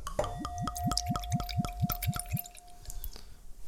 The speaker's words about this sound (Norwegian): Er dette iseple Jeg må bare helle oppi med en gang.